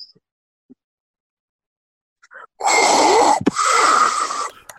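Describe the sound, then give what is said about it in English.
A voice imitates heavy mechanical respirator breathing: a loud, hoarse, rasping breath, split into two long drawn phases with a brief catch between them, after a moment of near silence. “The voice, the, the breathing was great.”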